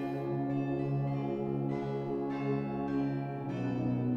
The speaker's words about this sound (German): Er streckt sich gen Himmel, als versuche er die Wolken zu kitzeln. Ganz oben auf dem Turm erkennen wir ein Spiel aus fünf Glocken, die sich unterschiedlich schnell hin und her bewegen.